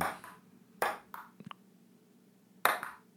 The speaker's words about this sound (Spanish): Con una bola de ping-pong. Sí, mano, de lado a lado, de lado a lado. Para adelante y para atrás,